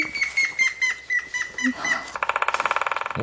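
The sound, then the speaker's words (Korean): A woodpecker drums in a fast, even burst of sharp knocks lasting about a second, loud, after a stretch of high, chirping, twittering sounds. “엄마야, 딱따구리. 딱따구리.”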